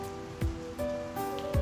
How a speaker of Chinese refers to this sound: 墨尔本这两天一直在下雨，十月末的墨尔本本该是夏天，这时却冷得让人发抖。